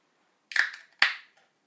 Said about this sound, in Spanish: Pues bueno, amigos, destapemos nuestra hermosa cerveza 2021.